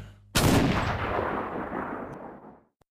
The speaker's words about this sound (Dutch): Nou ja, dat ene schot was wel eh, een beetje overdreven.